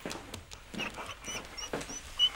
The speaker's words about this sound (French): Et moi je viens donner la gamelle au chien. Allez, viens boire.